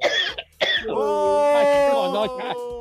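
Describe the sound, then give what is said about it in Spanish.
Two sharp coughs in quick succession, followed by a long, wavering voiced groan that holds for a couple of seconds. “ya, ya hasta les dio tos aquí a los madrigalistas.”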